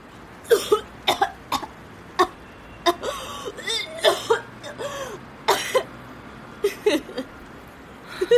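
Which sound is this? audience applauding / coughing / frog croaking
coughing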